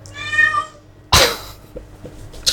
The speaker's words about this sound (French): Donc, les chats sont un petit peu bavards aujourd'hui. Donc, je pense qu'on risque de les entendre pendant le podcast.